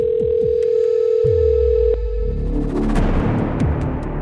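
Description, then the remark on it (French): A telephone call to a house's landline produces a ringing tone: one steady, clear electronic tone for about two seconds, then it cuts off and gives way to a low, rumbling wash of noise with scattered dull thuds. “Alors, elle reprend sa voiture et rentre chez elle, saisit son téléphone et rappelle une énième fois sur le fixe de la chamade.”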